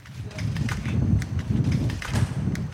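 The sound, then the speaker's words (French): Strong, storm-like wind blows outdoors during a walk, a heavy low rumble that surges and buffets in repeated gusts, with scattered sharp crackles and taps riding on top. No one speaks. “Là, on a un peu l'impression qu'on est en pleine tempête avec ce vent, mais...”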